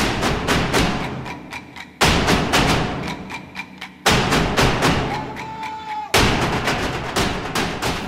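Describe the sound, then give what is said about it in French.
A carnival percussion band at the Carnaval de la Plaine drums loudly in a fast, steady rhythm amid a jubilant marching crowd, heavy booming beats mixed with sharp cracking hits, continuing throughout with no talking and a brief high whistle-like tone midway. “C'est donc une foule en liesse qui avance éperdument au pas et à grands coups de tambour.”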